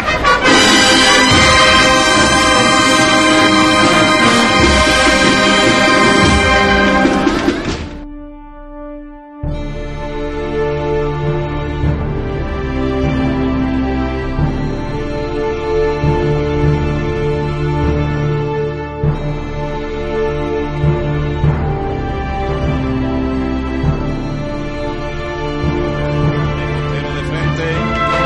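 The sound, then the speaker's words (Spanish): A brass band, the musical group accompanying the Señor de la Piedad in a Holy Week procession in Jaén, plays a slow processional cofrade march, loud and full with sustained chords; after a short pause where a single low note hangs, the band resumes. No one speaks. “Al cielo el Señor de la Piedad y su agrupación musical mientras sonando los sones cofrades que le van a ir llevando hacia la calle Campana, hacia la Plaza Santa María, la calle Almena y de recogida por su barrio.”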